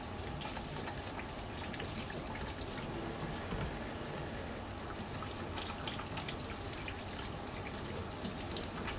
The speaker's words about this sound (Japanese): 手を洗いますなるべくね手は洗います